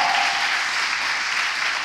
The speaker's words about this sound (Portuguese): Dá um aplauso aí, pelo amor de Deus.